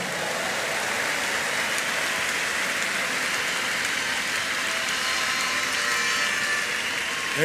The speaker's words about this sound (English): Thank you, Jesus. Thank you, Jesus. Give the Lord the biggest clap offering, everybody.